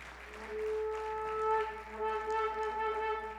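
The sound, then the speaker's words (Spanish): An audience breaks into steady, continuous applause for God lasting a few seconds, mixed with sustained keyboard chords holding underneath; no one speaks. “Dele un aplauso a Él.”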